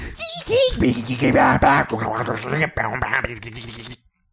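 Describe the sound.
A voice imitates wobbly electronic dubstep noises, a loud, buzzy run of warbling glides and gritty bursts lasting about four seconds before cutting off into silence.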